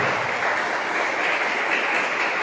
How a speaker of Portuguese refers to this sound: Dê uma salva de palmas para Jesus, irmão.